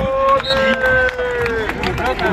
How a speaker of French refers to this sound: Ils étaient plusieurs centaines d'amateurs hier à s'être rassemblés pour applaudir les champions et assister à une démonstration de rugby fauteuil.